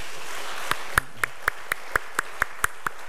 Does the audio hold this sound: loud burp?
no